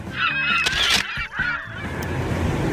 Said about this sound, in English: Eh, gaviota se dice seagull.